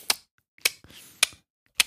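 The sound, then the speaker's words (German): Four sharp hand claps at a steady, slightly uneven pace of about one every half second, imitating an audience clapping along out of time while a drummer plays to a click track in his ear. No one speaks. “Aber für dich muss doch auch Horror sein als Drummer, wenn das Publikum mitklatscht und du hast einen Klick im Ohr.”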